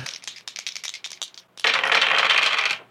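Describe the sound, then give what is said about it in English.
Dice rattle and clatter in quick, uneven clicks for a second and a half, then a louder continuous rattling burst follows, with no voices. “Give me uh, give me your dice roll.”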